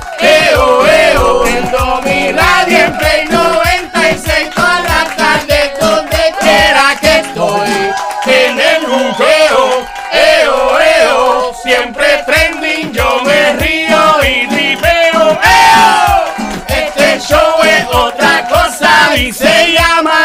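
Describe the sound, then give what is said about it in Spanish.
A loud, upbeat jingle for a live radio show plays continuously, with sung vocals over dense, full-band music that stays at a steady, high level throughout. “Apréndete jingle, puede que no acuerde. Ahí va.”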